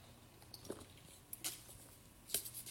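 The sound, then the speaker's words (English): Quiet sipping from a drink, with a couple of short wet slurping clicks standing out against a soft, steady background hush. No one speaks. “Let me get another sip of this.”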